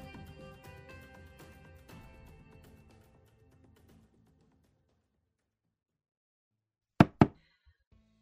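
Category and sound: household object, knocking on a door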